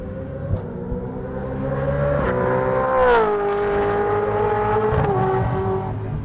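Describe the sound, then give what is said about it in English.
The V8 engine of a Gen 3 Mustang supercar screams at full throttle during testing at Winton, a loud, harmonically rich roar whose pitch climbs and dips through a couple of gear changes. No one speaks. “No special reason, just love the angry note of a V8 supercar's engine at full flight.”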